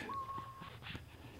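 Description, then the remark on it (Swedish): A crow makes strange throaty sounds: a thin, steady whistle-like tone followed by a few short, raspy bursts, all fairly faint with no talking. “Men, men jag vet att, att kråkor, en del kråkor har sådana här, som man kan kalla någon slags strupljud eller något motsvarande.”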